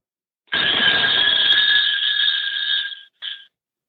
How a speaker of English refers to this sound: No, that's just four open faced bells called oh. team bells. They're Canadian. But uh, but listen to them. This bell has a lovely. They, they oh, just listen to how long they ring.